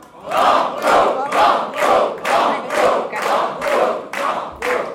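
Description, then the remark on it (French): A large quiz-show audience chants together in a steady rhythm, about ten loud shouted beats in five seconds, each burst rising and falling evenly like a repeated cry, asking the contestant whether to try for more. “Et le public vous dit, voulez-vous tenter le”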